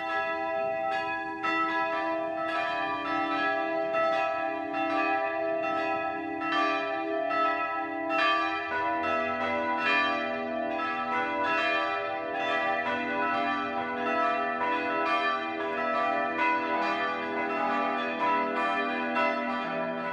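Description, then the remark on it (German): Church bells of the Evangelical Lutheran St. Egidius Church in Burghaslach, Middle Franconia, ring the 12 o'clock noon peal, several bells overlapping in a steady, continuous clangour of rich, sustained tones with shimmering overtones, with no voices. “Das Mittagsläuten kommt heute von der evangelisch-lutherischen St. Egidius Kirche im mittelfränkischen Burg Haslach.”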